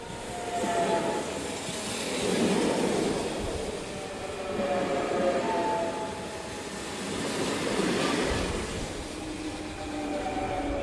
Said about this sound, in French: Un train passe. Tiens, il y a encore des trains qui circulent.